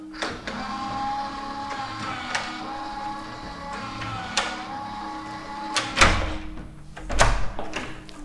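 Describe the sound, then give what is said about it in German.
A motorized door lock at a coworking space in Vienna's 15th district, opened via a smartphone app, whirs steadily with a faint electric hum, punctuated by several mechanical clicks and a heavier clunk near the end as the bolt releases, with no talking. “Da sperrt man zum Beispiel die Türen per App auf.”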